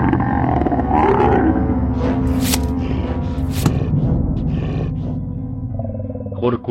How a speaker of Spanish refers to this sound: Mientras toda la atención se centraba en ellos, un gruñido se escuchó en el costado de la puerta seguido de un sonido inconfundible.